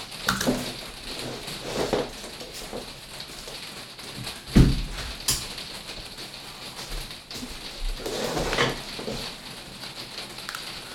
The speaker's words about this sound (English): Sorry, I am just going to like go close the window because it started raining.